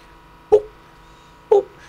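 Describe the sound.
A voice imitates a wooden fish bell struck during a breathing meditation practice, with two short, hollow, drop-like knocking syllables spaced about a second apart, moderately loud against a quiet background.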